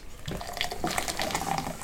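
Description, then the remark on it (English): A nitrogen-infused drink is poured hard from a 16-ounce can into a glass, a continuous gurgling, fizzing rush building a foamy head, with no one talking. “I've never poured a nitrogen infused drink before.”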